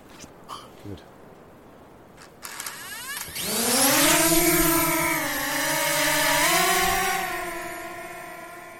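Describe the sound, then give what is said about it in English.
A few clicks and handling knocks, then a drone's motors spin up into a loud, steady high-pitched buzzing whine that wavers slightly in pitch as it lifts off and hovers, launched on the Kopu Highway to view thick, rough bush and the Tairua River. “So I'm going to put the drone up here just to get a better idea of of the kind of land that we're looking at because it is incredibly incredibly rough”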